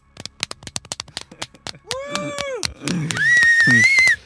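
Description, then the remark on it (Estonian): A burst of sharp, irregular hand claps for a couple of seconds, followed by a loud voiced whoop, a noisy rush and a high, sustained whistle over cheering, like a canned applause effect. “Sample, sample. ja aplaus.”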